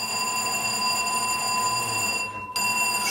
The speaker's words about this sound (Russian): Это сейчас пройдет. Э, это пожарная тревога.